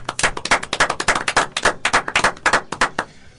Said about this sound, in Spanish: acá los cuatro en el estudio te damos este aplauso, mirá.